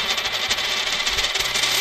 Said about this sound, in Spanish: Lanzo la moneda.